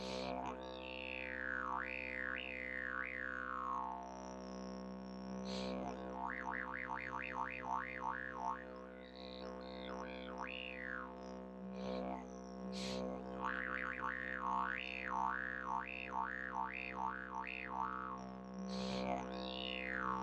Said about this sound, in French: Et à force de faire ça toutes les, pas moi, toutes les 5 secondes ou toutes les 10 secondes, bah, le son ne s'arrête jamais. Puisqu'on inspire quand on veut, tout en continuant de souffler, donc le son ne s'arrête jamais.